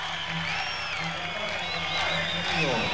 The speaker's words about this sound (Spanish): Escuchen los, los chiflidos, los chiflidos.